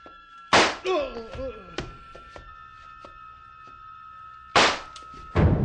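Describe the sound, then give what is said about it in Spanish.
Sharp pistol shots crack out as del Valle fires at the general: one loud bang, a few seconds of a brief voice and a steady electronic hum, then two more shots in quick succession. The first bullet hits the general in the belly and the second misses. “La primera bala le dio al general en el vientre.”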